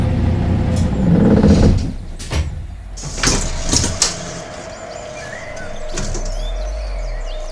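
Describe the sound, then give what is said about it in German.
A heavy bus engine rumbles and winds down as the bus slows to stop at a roadblock in a forest, a few sharp hissing bursts like air brakes follow, and a low steady idle hums once it stops. “Ich muss anhalten.”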